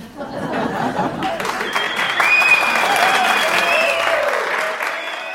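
Sustained audience applause for performers returning to the stage, a dense steady wash of clapping with some cheering or whistle-like tones rising through it, holding at a fairly loud level throughout.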